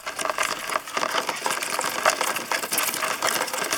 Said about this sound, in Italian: quello che senti in questo momento è il rumore di un termitaio di formiche rosse dell'Arizona